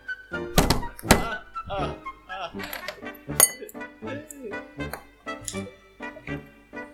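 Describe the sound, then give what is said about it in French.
A one-cent coin clinks and taps against a hard surface several times, sharp metallic hits with brief ringing, irregularly spaced, with some faint vocal sounds in between. “Celle que j'ai, c'est une pièce de 1 centime.”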